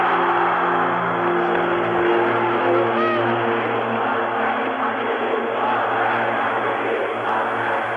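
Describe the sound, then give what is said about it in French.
A large crowd roars and chants "Algérie française" in unison, a dense, continuous wall of massed voices with a steady low hum beneath, sustained loudly throughout. “Il y a toute la foule qui clame comme ça Algérie française.”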